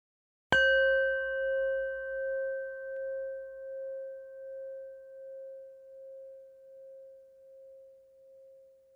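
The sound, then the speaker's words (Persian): A Tibetan singing bowl, used for a meditation exercise, is struck once and rings on with a steady, pure mid-pitched tone and faint higher overtones, slowly wavering and fading over several seconds. No one speaks. “مادامی که شما به صدای کاسه تبتی توی این قسمت گوش میدین شما در حال مدیتیشن هستین اگر فکری اومد هیچ عیبی نداره بذارین اون فکر بیاد و فقط به صدای کاسه تبتی گوش بکنین”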